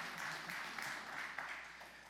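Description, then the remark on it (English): A church audience applauds steadily, dense overlapping claps for a couple of seconds, fairly even in loudness with no voices rising above it. “Yeah, you can clap. Give it in. If you're going to clap, come all in.”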